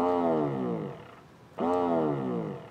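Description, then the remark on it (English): A haptic vibration motor for a controller plays a ramp-down effect twice: a loud, harmonically rich buzz slides downward in pitch, fades, and after a short pause starts again and sinks once more. No one speaks. “This is a ramp down.”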